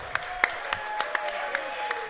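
Light, scattered applause for a raffle winner during a Milwaukee Torrent team event: a handful of sharp, irregular claps spread over two seconds, fairly soft, with a faint steady hum underneath and no one talking.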